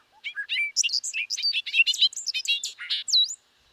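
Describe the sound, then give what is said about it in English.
A bobolink's bubbling song: a fast, tumbling jumble of bright, metallic, tinkling notes that rise and fall for about three seconds, clear, with no other sounds. “Many birds have adapted to nest in grassland habitats and nowhere else in North America, birds such as the bobolink seek out grasslands to raise their young, deftly hiding their nests within the dense vegetation.”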